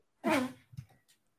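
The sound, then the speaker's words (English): One loud, forceful sneeze bursts out, with a voiced, almost trumpeting, elephant-like tail, followed by a couple of soft breathy sounds before quiet returns. “Was that a sneeze?”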